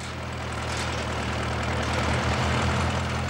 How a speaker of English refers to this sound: The nearby drilling operation has already produced cores 200 metres below sea level into the lava pile. The final target is 500 metres.